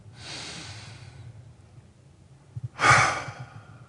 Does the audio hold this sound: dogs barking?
no